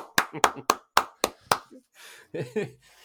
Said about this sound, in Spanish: Un aplauso como, a las churrerías.